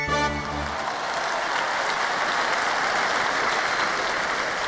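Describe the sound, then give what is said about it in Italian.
A large circus audience claps enthusiastically for the show, a dense, steady wash of applause that holds at full loudness throughout, with a brief tonal sound at the very start and no one speaking. “Sera dopo sera, gli spettatori applaudivano entusiasti quello spettacolo meraviglioso”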